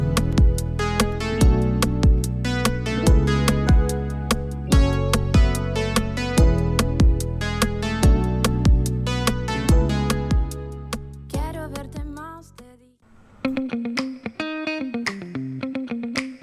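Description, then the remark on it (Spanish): A music track with a steady beat and bright harmonic layers plays loudly on the radio show Café con Nata, then shifts near the end into a thinner section with a gliding melodic line after a brief dip. “con 9 30 nos vamos a la música.”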